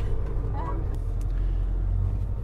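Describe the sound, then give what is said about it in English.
A coach bus drives along narrow roads on a trip to the station on a beautiful morning, with a steady, deep engine rumble and road noise that holds constant throughout, with a faint higher hiss above it. “Beautiful morning as we take the coach trip to the station.”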